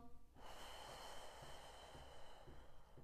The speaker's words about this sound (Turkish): Burada uzun nefes alıp yavaş yavaş o nefesi aldığımız kadar nefesi bırakabiliriz. Aynen bu şekilde. Nefes al.